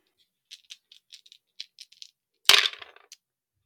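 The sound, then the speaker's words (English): Dice rattle with a run of quick, light clicks, then tumble out in a loud clatter that settles with a final tap. No one speaks. “So, what do the dice have in store for us”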